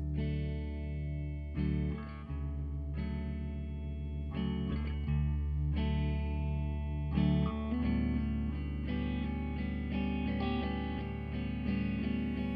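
An indie rock song opens with loud, distorted, effects-heavy guitar chords ringing out in steady changing blocks, full and sustained, with no singing yet.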